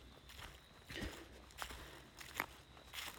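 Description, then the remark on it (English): Several crunchy footsteps of a person walking on dry ground, fairly quiet, landing at an uneven walking pace with brief gritty bursts between them. “Second of all, like the noise is in like my crunchy feet.”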